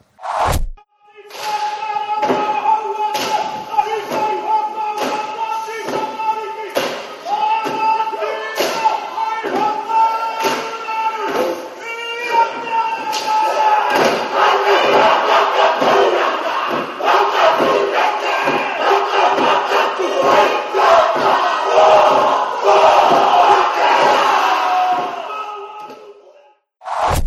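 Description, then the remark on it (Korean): A large group performs a Maori haka, the war chant warriors shout before battle, in unison, bellowing rhythmic shouts punctuated by heavy, regular stomps and slaps, growing louder and more intense toward the end. “근데 정말 전사들이 늘어, 서서 전쟁하기 전에 외치는 그 학하는 정말 말 그대로 원초적인 공포를 담고 있죠. 너를 잡아먹을 거야, 예!”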